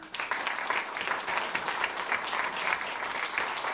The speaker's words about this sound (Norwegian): Tusen takk for at dere kom, og ikke minst takk til eh, panelet. En applaus til dem.